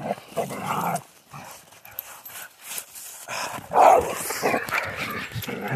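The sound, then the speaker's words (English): Two dogs, a young one and an old one on a leash, bark and yip excitedly, a burst of sharp barks peaking in the middle, with whimpering and scuffling between them and no talking. “The young dog gets excited when the old dog is on a leash think because she's kind of a captive, a captive audience.”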